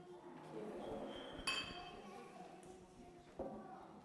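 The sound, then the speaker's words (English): Hot water for a cup of tea is poured in a controlled way into a teacup, a continuous hissing trickle, broken by two sharp, bright clinks of china at separate moments. “Pouring the hot water in a controlled way.”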